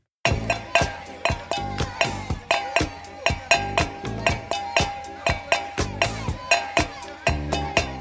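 A Coke bottle is struck as percussion, giving a steady groove of bright, ringing clinks, roughly two or three per second, fairly loud with no talking.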